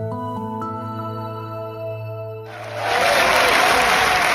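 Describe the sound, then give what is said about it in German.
A short sustained musical tone gives way to a loud burst of applause and cheering from left and right members of the French National Assembly celebrating their victory over President Macron, dense and continuous clapping filling the last couple of seconds. “Hörbare Zeitenwende in der französischen Nationalversammlung. Dort jubeln Linke und Rechte über ihren Sieg über Präsident Macron.”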